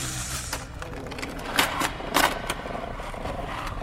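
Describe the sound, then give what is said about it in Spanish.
Creaking and metallic dragging and clanking of chains in a haunted house, like heavy chains hauled across a hard floor, with a few sharper rattling bursts over a low, continuous rumbling grind. No one speaks. “Crujidos y arrastrares de cadenas.”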